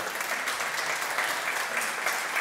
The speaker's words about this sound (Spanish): Tengo otra imagen increíble que quiero que vean. Esta es una vista aérea. Esta vista, por favor, un aplauso o algo.